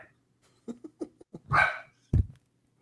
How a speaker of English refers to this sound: I like how when you say quiet, they give you like a defiant bark back. Like no. no.